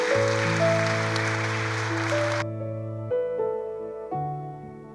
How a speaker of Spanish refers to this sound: Démosles un fuerte aplauso de bienvenida.